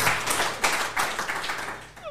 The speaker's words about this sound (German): Also, Applaus für den Dino schon mal, der auf ein paar schmeißt.